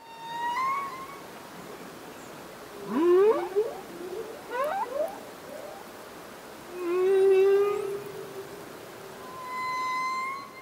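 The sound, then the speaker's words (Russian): Song of a male humpback whale: a series of sweeping, harmonic moans and upward whoops, with a long low groan and high tonal cries, echoing over a steady underwater hiss. No talking. “Давай послушаем песню самца горбатого кита.”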